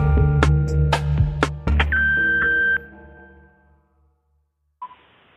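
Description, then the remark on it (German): An answering machine beep: a steady electronic tone holds for about a second over a busy, clattering background, then fades into near silence before a brief noise at the end. “Zehn Minuten habt ihr Zeit und reden könnt ihr nach dem Piepston.”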